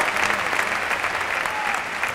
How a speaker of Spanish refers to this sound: Sigue la ovación mientras Carretero recibe ese brindis de Tomás Rufo en su despedida como torero. Y ahora saluda a ovación, la ovación ¿eh? José Antonio Carretero.